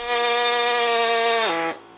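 A pneumatic high-frequency peening hammer, driven by compressed air from a compressor, strikes the edge of a weld seam 200 times per second, a loud steady insect-like drone with a low pitch and rich harmonics that dips slightly before cutting off near the end.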